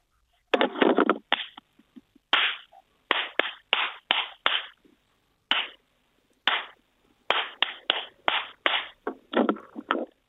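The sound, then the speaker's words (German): Loud, sharp hand claps ring out one after another, sometimes in quick clusters and sometimes with short pauses, each with a brief echoing decay. No one speaks. “Das klang jetzt nach so richtig kräftigen Klatschern und zwar korrekt.”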